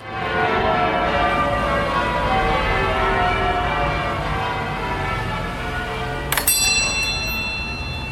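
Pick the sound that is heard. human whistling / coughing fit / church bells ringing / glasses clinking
church bells ringing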